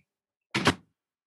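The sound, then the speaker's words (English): A door shuts with one short, solid thump that fades quickly, set against near silence with no voices. “Let me close the doors.”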